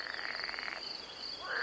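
A frog croaks in a forest in a fast, buzzy pulsing trill that stops partway through, over a steady high-pitched insect-like drone, with a brief rising call at the end.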